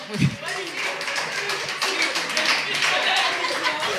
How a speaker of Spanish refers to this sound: A juzgar por el aplauso general del público, digamos que sí, ya fue.